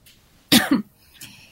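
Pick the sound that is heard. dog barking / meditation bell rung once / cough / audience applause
cough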